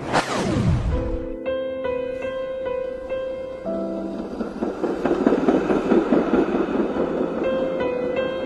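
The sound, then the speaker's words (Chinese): A train rumbles along its rails without pause, layered with sustained whining tones that step up and down in pitch, after a brief opening sweep that drops from high to low. “二十二岁，安离家出走，在轰隆作响的火车上，想着时光会如广阔的田野伸延到远方，充满神秘和传奇。”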